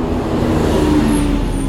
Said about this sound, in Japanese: どうですかこの交通量の多さこんな交通量の中ねこう一人スマホ片手に喋ってる